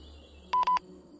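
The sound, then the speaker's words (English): Walkie-talkie number eight buzzes at night by a hyena enclosure: a quick cluster of loud, steady electronic beeps, all on one mid-high pitch, lasting about a quarter second over a faint background hum. “I buzzed on walkie number eight.”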